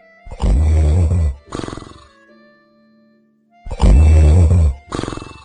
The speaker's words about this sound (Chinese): 拿手机一看，才十二点多，我想着放一会儿音乐再催眠一下，可是怎么也睡不着，耳边只有那不停的呼噜声。我开始后悔刚才嘲笑前排的那位呼噜哥，其实高手在我身边呢。